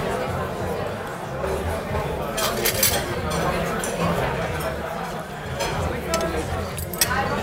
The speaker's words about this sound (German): Ach, braucht man da spezielles Besteck? Äh, ich glaube, das spezielle Besteck wird gerade weggenommen.